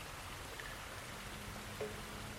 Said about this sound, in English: Um, it's just a sort of test. To make sure the water's not contaminated. I just put it in this little glass vial and shake it.